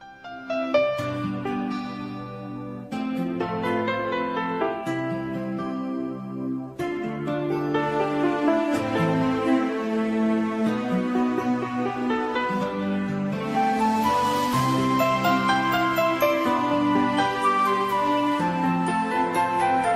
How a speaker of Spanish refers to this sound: ¿qué tal si vamos a escuchar un canto que se llama precisamente El Bautismo de Jesús?